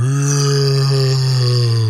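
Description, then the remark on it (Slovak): A voice imitates the yawn of Medveď Mišo, a bear living in a den in the forest who has just woken in the morning: a long, low, sustained groaning tone that holds steady for about two seconds, loud and unbroken, with no words spoken. “lebo medvede tak zývajú, tak strašne otvoria tú svoju papulu.”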